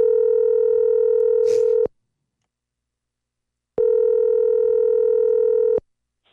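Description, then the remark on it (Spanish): A telephone line tone sounds while a call is placed: two steady, buzzing two-second tones separated by about two seconds of silence, clear and fairly loud, with no talking. “y, ok, vamos, dale, márcale.”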